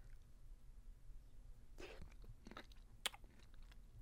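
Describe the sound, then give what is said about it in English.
Quiet chewing of cherries with soft wet bites and a few sharp crunchy clicks, irregular and intimate, with no talking over it. “And the cherry, I haven't even tried the cherries yet. I want to taste the cherries.”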